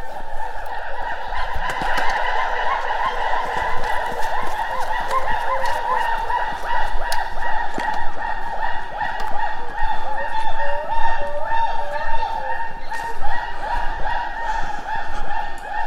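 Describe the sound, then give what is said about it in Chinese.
Gibbons calling in a dense, overlapping chorus on a foggy day, loud, honking whoops and rising hoots repeating without pause for the whole stretch, with no one talking. “录到了长臂猿的声音。”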